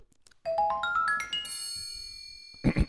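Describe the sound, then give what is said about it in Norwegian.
A short bright radio show jingle of rapidly rising chime notes stacking into a sustained shimmering chord, loud, ending with a couple of punchy low thumps. “vi, tar en liten, eh, vi tar en liten jingle.”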